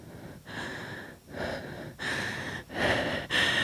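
Heavy, rapid panting from someone running as hard as they can, a series of harsh breaths growing louder and more strained. No speech.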